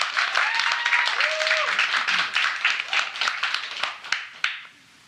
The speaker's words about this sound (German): Applaus natürlich erstmal.